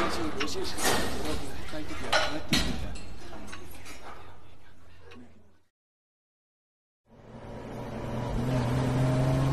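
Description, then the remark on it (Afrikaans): A car engine rumbles steadily while driving to a small farm outside town, with road noise and occasional clinks. The sound cuts out briefly into silence, then a steady engine hum resumes. “Waarheen ry ons? Na 'n plaasie buitekant die dorp.”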